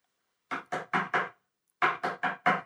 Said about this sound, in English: Margaret knocks at Tom's door.